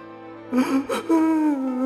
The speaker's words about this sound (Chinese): 哭声越来越清晰了，好像就在耳边。